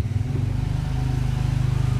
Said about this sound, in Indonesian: aduh motor anjir setinggi itu